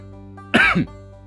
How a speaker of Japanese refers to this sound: 咳の方はねだいぶ良くなってきてますなんか咳の質が変わってきましたねうんうんうんうんうんって感じまあこんな感じかな。